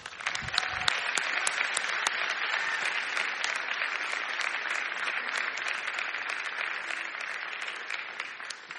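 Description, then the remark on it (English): A large church audience claps steadily and continuously, a dense, sustained wash of applause at an even level for several seconds, with no talking over it, welcoming a preacher. “So church, would you welcome Bob Russell?”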